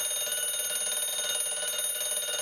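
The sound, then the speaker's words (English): An alarm clock rings continuously, a shrill, bright, buzzing tone that stays at the same loud level throughout, with no pauses and no voices. “What's your first reaction when you hear that sound in the morning time?”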